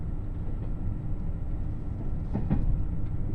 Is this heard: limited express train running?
yes